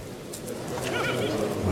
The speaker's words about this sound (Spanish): Ahí le oímos al picador cómo intenta animar al toro, paso atrás con el caballo toro como si no fuera con él.